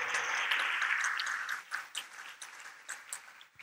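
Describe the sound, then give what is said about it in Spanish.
A crowd applauds the worship leaders in a dense wash of clapping that thins out after a second or so into scattered, separate claps as the applause fades away. “¿Por qué no le damos un aplauso a ellos, a los de alabanza.”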